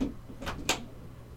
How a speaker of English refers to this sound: Whoa. My kid just hit the door.